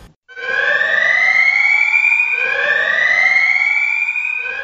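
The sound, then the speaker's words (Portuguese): A loud alarm siren wails in rising sweeps, each climbing tone lasting about two seconds before restarting, blaring steadily on its own with no voices. “sou o alarme aí.”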